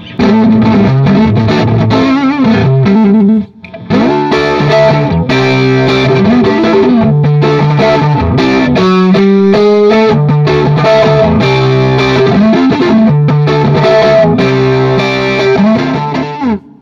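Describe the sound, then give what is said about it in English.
Heavily overdriven electric guitar plays loud, saturated chords and riffs, with a short pause near the start before the crunchy, sustained playing resumes. “So that's that cool sound. And then if you want more, I mean that's that's that's getting pretty drivey.”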